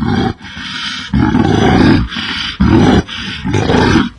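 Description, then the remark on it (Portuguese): A bear roars loudly, letting out four or so deep, rumbling bellows back to back with brief breaths between them, with no talking. “Ah, bem, como não pude me lembrar disso, muito obrigado, seu urso cretino.”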